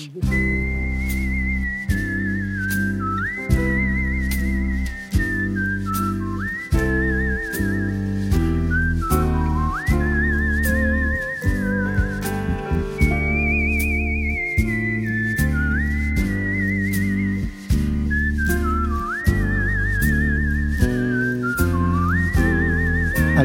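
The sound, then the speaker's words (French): Micheline Dax, a popular French actress, whistles a lively, ornamented melody with trills and slides, loud, over a full orchestral accompaniment with steady rhythmic beats; no one speaks. “Molly Lewis, comment vous pourriez noter dans un concours le sifflement de Micheline Dax, une actrice très populaire en France, qui avait une voix très particulière”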